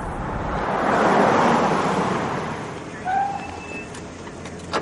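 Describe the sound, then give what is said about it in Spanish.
A black car rolls in on a street at night, with a broad rising whoosh that fades as it slows, followed by a couple of short, high brake squeaks as it stops beside police surrounding a building. No one speaks. “En la calle, aún de noche, un coche negro se detiene junto a los policías que rodean el edificio.”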